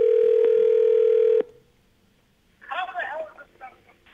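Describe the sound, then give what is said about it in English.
A steady, loud telephone dial tone hums for about a second and a half, then cuts off; after a brief quiet pause, voices start talking. “We're calling.”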